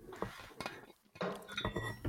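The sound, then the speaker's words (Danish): Glasses clink together in a toast, several sharp bright taps with a little ringing tone, mixed with light clatter of tableware and no one talking. “Skal vi skåle, eller, eller hvad?”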